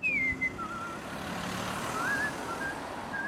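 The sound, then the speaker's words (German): Steady street traffic rumble with engines and hiss on the street outside the north exit of Munich's main train station, broken by thin high whistling or beeping tones that glide and repeat now and then; no one speaks. “Hauptbahnhof, Nordausgang. Der Reporter steht auf der Straße.”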